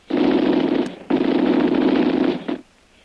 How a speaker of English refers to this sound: But the murderous machine gun fire finally halts their advance.